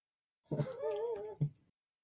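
A pet dog lets out one drawn-out, wavering whine lasting about a second, followed by a brief sharper yip, alone with no talking.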